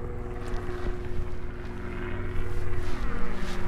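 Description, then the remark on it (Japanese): A helicopter drones overhead, making repeated passes back and forth (about its third pass), a steady low engine hum wrapped in broad rushing rumble that grows gradually louder across the few seconds, with no voices present. “ヘリコプターがさっきから何往復もしてるんですけど指名手配犯でも逃げたんですかこれ何でしょうもう今これ3往復目ぐらい”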